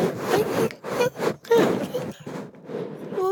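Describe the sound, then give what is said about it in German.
Scratchy rustling of tulle fabric in repeated bursts, swishing and crinkling as the stiff material is handled, with a faint voice briefly audible underneath. “die ganze Zeit mit dem Tüll, die ganze Zeit raschelt es.”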